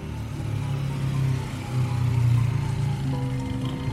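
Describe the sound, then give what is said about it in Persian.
A patrol motorcycle engine in a park hums steadily, its low drone swelling slightly as if drawing nearer, with no voices present. “از شانس خوب ما هنوز سیگارم تموم نشده بود که صدای موتورش اومد”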